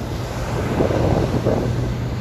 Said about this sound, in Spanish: Mira, aquí donde estoy paseando, estoy, weón, en lo que se llama el Paseo de las Olas, pero entré, ¿cachai? A la, orilla de la playa, que hay acá, que está justo al lado del puerto. Por lo tanto, a mi derecha ahora tengo el mar,